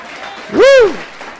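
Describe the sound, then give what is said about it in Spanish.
A crowd claps steadily in praise of the Almighty while a single voice lets out a loud, rising-and-falling cheer near the middle, standing out above the applause. “Denle un fuerte alabanza al bendito sea al Todopoderoso.”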